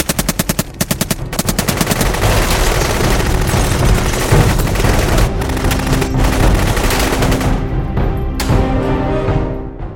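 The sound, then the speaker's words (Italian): Gunmen entering and opening fire: rapid bursts of automatic gunfire crackle in quick succession, the sharp repeated shots blending into a loud, continuous rattle with heavy booming underneath that lasts throughout. “Questi entrano e incominciano a sparare.”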